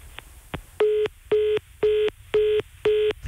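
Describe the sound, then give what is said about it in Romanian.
A telephone line's disconnect tone after a phone interview call ended abruptly: five short, identical electronic beeps at a steady pitch, evenly spaced about half a second apart, clear and alone with no talking. “L-am pierdut da. pe domnul Cezar Preda în momentul ăsta”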